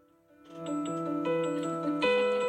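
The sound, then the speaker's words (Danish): A phone alarm on a phone with a broken screen rings on its own, a bright electronic melody of steady stepped tones that fades in quickly and then plays loud without pause. “Det er min telefon, hvor skærmen er gået i stykker, men telefonen virker stadig, så min alarm har ringet hele morgenen, og den bliver ved.”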